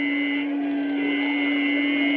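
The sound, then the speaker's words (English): A Martian heat-ray effect, a jet of flame springing from a mirror and leaping at advancing men: a steady, loud electric drone with a low hum and a piercing high whine layered over it, sustained without a break and with no voices. “There's a jet of flame springing from the mirror and it leaps right at the advancing men.”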